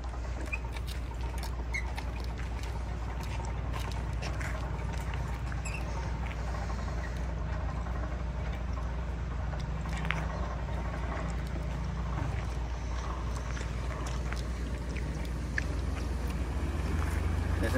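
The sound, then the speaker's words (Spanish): Water rushes steadily through a newly opened irrigation channel in Nayarit, Mexico, a dense, unbroken roar with faint ticks and patters scattered over the flow and no one talking. “Sí, vamos a, este, abrir, eh, si se puede, para escuchar acá cómo va a pasar el agua.”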